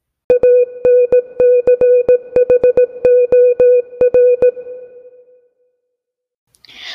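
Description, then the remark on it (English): A short electronic jingle marking a bonus segment plays alone: a steady buzzy tone chopped by rapid, irregular clicks for about five seconds, then fading out before a brief rustle at the end. “That's the sound of a bonus segment.”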